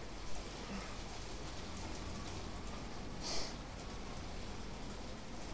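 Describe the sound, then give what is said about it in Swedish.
Steady rain falls diagonally with a continuous soft hiss and patter, fairly quiet and even throughout, with a couple of brief louder splashes or taps standing out; no voices are heard. “Det regnar diagonalt.”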